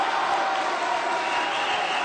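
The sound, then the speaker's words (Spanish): A crowd applauding Cristina in a dense, steady wash of clapping that holds at an even, fairly loud level for about two seconds, with no clear voices standing out. “Le aplaude la gente, por supuesto.”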